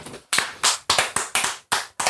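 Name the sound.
clapping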